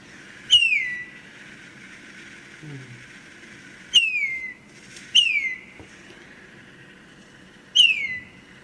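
Red-winged starling song: four clear, fluty whistles, each sliding downward, spaced a few seconds apart, loud over a faint low background hum.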